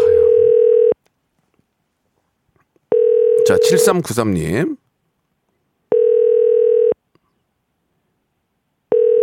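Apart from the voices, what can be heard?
telephone ringback tone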